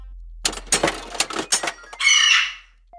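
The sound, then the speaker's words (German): A burst of rapid mechanical clicks and clunks as a ticket is ejected from a vending machine, ending in a brief whirring, rising tone before falling quiet. “Das Ticket wird ausgeworfen”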